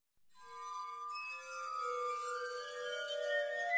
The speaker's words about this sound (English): It was prohibited uh, because it was thought that the sound of the glass harmonica and glass harp uh, would give some serious physical and mental disorders. People felt that actually it could lead to madness, even to death.